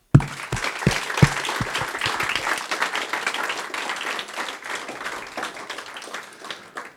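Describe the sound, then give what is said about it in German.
An audience gives a warm 'Oase' applause welcoming those watching via livestream, with steady, dense clapping that starts with a few sharp individual claps and continues evenly for several seconds before gradually thinning out. “Und ich würde sagen, wir schicken einem wirklich einen herzlichen Oase-Applaus.”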